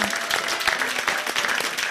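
Steady, dense applause from an audience, many hands clapping together in a bright, crackling wash that stays loud and even throughout.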